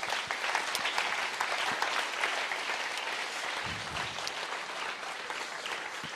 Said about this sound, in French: Vous êtes d'accord avec ça Est-ce qu'on peut applaudir une dernière fois